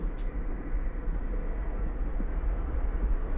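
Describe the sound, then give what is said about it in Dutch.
A steady, cold, drafty wind ambience in a draughty space, with the deep rumble of hoisting machinery droning underneath, continuous and even throughout, with no one speaking. “Waarbij je ook op de achtergrond al eh, de machinerie eh, hoort, zeg maar, hè? De, de, de, ophaalmachine.”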